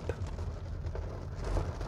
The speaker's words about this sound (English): It's probably getting pretty loud because the storms are uh, picking up